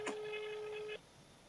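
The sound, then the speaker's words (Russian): A single steady electronic telephone tone, like a ringback beep heard over a phone line, begins with a faint click, holds for about a second, then cuts off to quiet line hiss. “Правильно звоню.”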